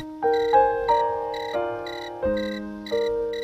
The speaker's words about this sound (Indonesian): Loh, Wah, ana telepon.